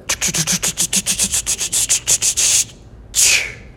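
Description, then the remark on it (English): A voice imitates the speaker's car failing to start at church: fast, breathy, rhythmic chugging of about eighteen strokes, a short pause, then one final hissing burst as the car just stops. “I went to start it the other day at church to go pick up some, some of my dearest friends. And my car says,”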